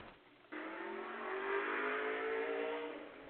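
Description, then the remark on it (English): A Ski-Doo snowmobile engine roars past on a hiking trail by a lake, rising in pitch and loudness as it approaches and holding a steady whine before easing slightly, with no talking. “I, think, I think somebody just went by on a ski do.”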